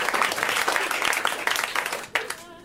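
Audience applause, a dense, steady crackle of many hands clapping for about two seconds, then a last sharp burst before it thins out and fades, with a voice faintly under it.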